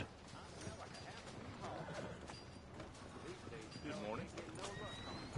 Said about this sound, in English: Big ass horse.